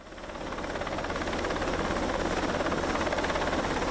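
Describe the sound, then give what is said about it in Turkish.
A helicopter carrying generators to a flood-hit region in Turkey flies by, its rotor producing a steady, rapid thudding chop over a loud engine roar that swells in the first half-second and then holds constant. “Milli Savunma Bakanlığı sel bölgesine iki yatay kaydırmalı köprü tankıyla 3 sabit köprü aracı gönderdi ve bölgeye helikopterlerle jeneratörler taşındı.”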